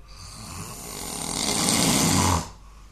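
A man snores loudly in his sleep at 1 a.m., one long rasping breath that swells steadily over a couple of seconds, then cuts off abruptly into quiet. Clear, with no talking.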